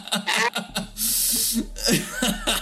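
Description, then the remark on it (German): A voice mimics a faint, metallic squeak with a few short, creaky vocal bursts, mixed with chuckling and a brief breathy hiss in the middle, moderately loud. “Man hört so ein leichtes metallisches Quietschen.”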